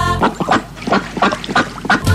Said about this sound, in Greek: Μια πάπια, πάπια πάπια